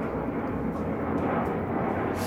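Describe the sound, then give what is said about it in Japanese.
A loud, steady roar of an airplane passing overhead, a dense rumbling drone filling the low and mid range without letup, with no voices over it. “先ほど言いましたけど、飛行機飛んでますね。このタイミングで飛行機飛ぶのかな昨日も飛んでましたよねちょっと待ちましょうかなかなか音うるさいですね”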